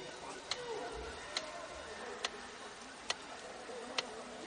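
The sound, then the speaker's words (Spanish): A metronome, set going by the policeman Somerset as he lies in bed in a David Fincher film, ticks steadily, five sharp, evenly spaced clicks just under a second apart, clear over a low, muffled background hum. “concentrándose en el sonido del metrónomo.”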